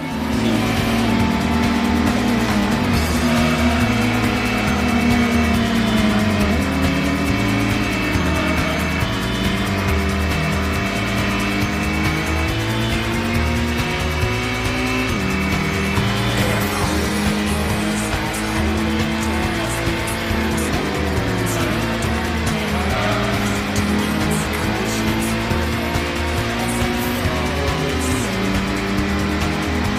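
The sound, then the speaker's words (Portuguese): A car engine in a racing RPG video game drones loudly and continuously, its pitch climbing and dropping through gear shifts as the car accelerates, with no talking over it. “É um RPG de carro.”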